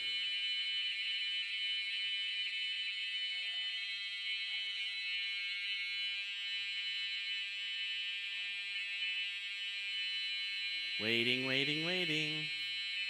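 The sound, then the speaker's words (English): A building fire alarm in a church blares continuously at high pitch, a steady electronic drone filling the whole stretch, with a low hum beneath and a person's voice briefly cutting in near the end. “We may need to clear the building.”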